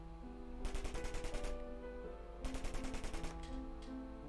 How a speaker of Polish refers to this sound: Na zewnątrz słyszałem. Momentalnie. trzy serie z broni automatycznej momentalnie, mimo że jestem w piwniczce, momentalnie kucam, jakbym miał się chronić przed wystrzelem.